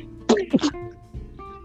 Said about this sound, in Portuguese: Saúde. Isso foi um espirro. Eu eu segurei.